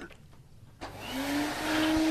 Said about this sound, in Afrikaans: Toe gaan haal toe by die stofsuier. Hy druk die kragprop in die muur en hy skakel die masjien aan.